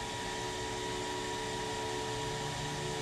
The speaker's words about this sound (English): and then boom, a little bit of a uh, hair dryer action, hair dryer.